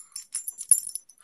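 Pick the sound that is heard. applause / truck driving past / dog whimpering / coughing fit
dog whimpering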